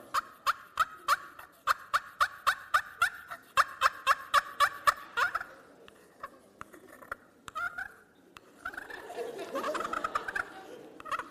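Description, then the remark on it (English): A slate turkey call scratches out a quick, steady run of about fifteen sharp, raspy yelps that mimic a turkey, followed by softer scattered squeaks and a stretch of murmuring voices. “so you use different turkey calls. I believe this is called a slate call.”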